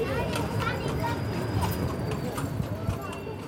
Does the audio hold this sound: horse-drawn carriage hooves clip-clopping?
yes